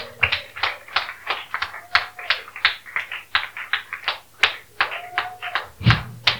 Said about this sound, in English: Hallelujah. Praise the Lord. Are you clapping? Clap it well.